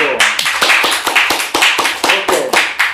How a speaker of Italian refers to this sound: Un applauso del pubblico.